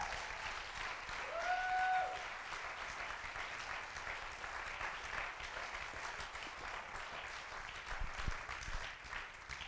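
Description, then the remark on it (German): An audience applauds God steadily for about ten seconds, a dense, even clatter of many hands with no talking, and a short rising whistle cuts through early on. “Give the Lord a clap Lass uns Gott dafür einen Applaus geben.”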